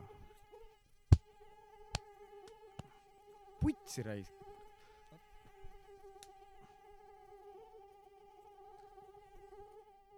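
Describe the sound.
A mosquito on Vormsi whines steadily inside a room for the whole stretch, its high thin drone wavering slightly, with a few sharp taps and a brief muttered voice breaking in early on.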